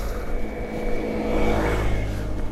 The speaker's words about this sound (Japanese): あでもこれは静かなバイクだからいいですけど